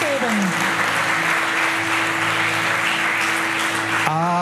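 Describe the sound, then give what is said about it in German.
A large crowd claps loudly and steadily for several seconds, applauding for Jesus at a church service, a dense wash of applause over a faint sustained tone, with a voice rising briefly near the end. “Lasst uns ihm einen großen Applaus”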